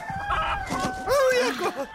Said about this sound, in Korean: 쫓기던 닭은 서울 형수 머리 위로 파사삭 날아앉았고.